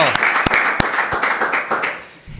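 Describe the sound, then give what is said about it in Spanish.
An audience applauds a young bullfighter, the leader of the Andalusian novillada circuit, as he is welcomed: a dense wash of clapping with a few sharp, louder claps standing out, holding steady before tapering off at the end. “Qué ovación, te has gusto, eh, ¿eh, Torero?”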